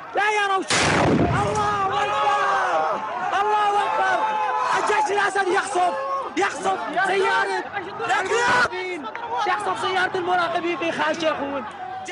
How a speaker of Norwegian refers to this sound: En hjemmelaget bombe eksploderer under en av bilene. FN var målet.